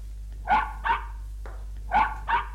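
A dog barks in two quick pairs, four sharp woofs with a pause between the pairs, over a steady low hum.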